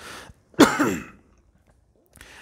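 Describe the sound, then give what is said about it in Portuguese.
A single sharp cough bursts out and fades within half a second, surrounded by quiet with no talking. “Agora vão dizer que o caboclo pena vermelha tossiu.”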